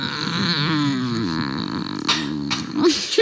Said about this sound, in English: to growl and it hurt.